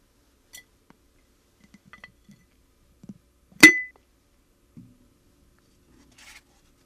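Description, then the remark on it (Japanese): Soft handling and light tapping noises, then a single sharp, ringing clink of a coaster dropped into a glass jar for keeping, followed by a faint rattle and a quiet final chime. “ではこちらのコースターもガラス瓶に入れて保存したいと思います”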